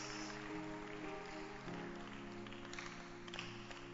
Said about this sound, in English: You may be seated. Clap your hands. Oh, keep clapping your hands.